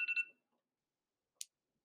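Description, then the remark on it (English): A phone alarm beeps in a quick burst of three bright electronic pulses that cut off abruptly, followed by silence and a single brief, faint click. “that's my alarm”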